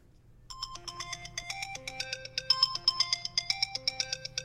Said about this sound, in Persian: چند ثانیه ای نبود را افتادم که سرم گذاشته بودم رو فرمون ماشین و داشتم فکر میکردم که یهو تلفن اون مرد شروع به زنگ خوردن کرد